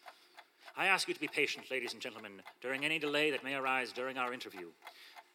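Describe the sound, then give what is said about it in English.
Faint, steady mechanical ticking from the vibrating clockwork of a huge telescope runs in the background, partly buried beneath a man's voice speaking clearly and formally in the foreground. “The ticking sound you hear is the vibration of the clockwork.”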